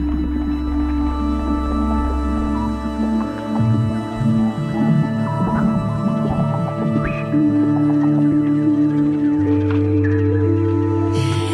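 Layered modular synthesizer music with sustained electronic tones over a deep low drone, shifting pitches and a busy, burbling texture, played steadily and fairly loud throughout with no voices.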